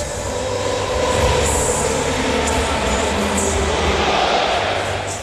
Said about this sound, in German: Hör mal, ich würde am liebsten mitsingen, mein Lieber. Ist das nicht schön? Der BVB mit den eigenen Fans und singt